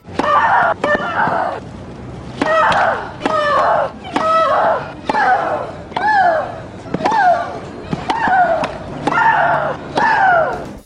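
Tennis player Maria Sharapova shrieks loudly on court with each stroke, a sharp crack of the ball on the racket followed by a long, wavering scream, repeated about nine times in a steady rally rhythm.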